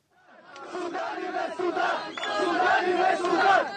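A crowd of Israeli protesters at a demonstration against African migrants in Israel chants loudly and in unison, "Sudanese to Sudan" and "Tel Aviv is for Jews", voices rising and swelling over a few seconds in an angry, rhythmic shout with a dense roar of many voices.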